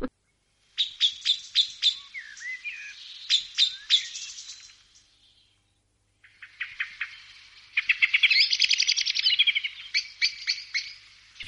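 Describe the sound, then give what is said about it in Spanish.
A male common blackbird sings two bursts of rapid, bright warbling and chirping notes, separated by a brief pause. The song is clear, with no voices. “Es un macho de mirlo común, un canto de un macho.”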